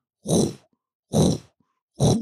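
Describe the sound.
A voice imitates a dull, droning football stadium chant: three evenly spaced, loud, grunting bursts, each about half a second long, separated by brief silences.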